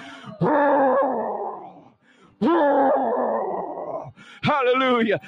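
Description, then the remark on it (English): A church audience roars loudly in imitation of a lion on a count of three, in three sustained, throaty bursts, the last one shorter, with brief pauses between them. “On a count of three, we're going to loud, with a loud roar.”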